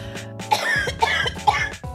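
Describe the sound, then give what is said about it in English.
Three dry coughs in close succession, evenly spaced about half a second apart, moderately loud, with no talking. “Even though I could cough right in your mouth and you'd say, Hey, I love that germ.”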